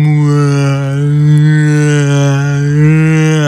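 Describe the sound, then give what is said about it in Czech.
NASA's recording of the sound of a black hole, sounding slowed down: a deep, sustained droning tone with stacked harmonics, slowly wavering in loudness like a drawn-out low moan, playing alone for a few seconds without any speech. “A zpráva z vesmíru, NASA nahrála zvuk černé díry. Zní to jako takový zpomalený zvuk, takový”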